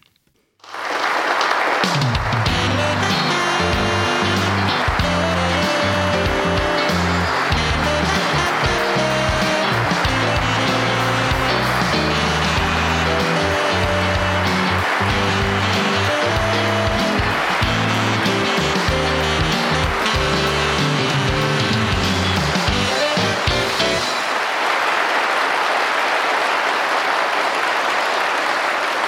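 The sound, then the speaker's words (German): A thunderous applause sound effect welcoming Steffen Lüning of Datenschutz-Wohnzimmer roars steadily for nearly half a minute, loud and dense, with a low droning tonal layer beneath it that drops out near the end while the clapping carries on. “Bitte einen tosenden Applaus für Steffen Lüning vom Datenschutz-Wohnzimmer.”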